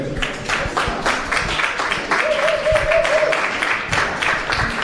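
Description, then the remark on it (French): A crowd applauds steadily for several seconds as a musician takes the stage in Toronto, dense overlapping claps, with a brief sustained tone or cheer rising above the clapping midway through. “… va prendre place sous les applaudissements du public.”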